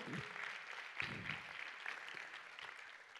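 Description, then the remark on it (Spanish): A church audience breaks into steady applause for the Lord, a dense wash of many hands clapping at an even level for about three seconds, with a few louder claps standing out and no talking. “¿Cuántos dan un aplauso al Señor por ese maestro que, que nos salvó?”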